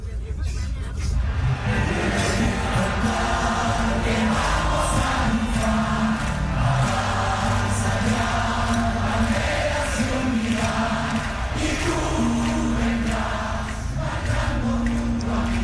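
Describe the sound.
A large crowd sings a rousing Chilean political protest song in unison, loud and continuous, with a steady melodic line rising over dense background hubbub and chanting voices.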